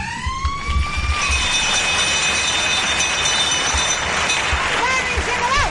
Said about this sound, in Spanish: Campana y se acabó.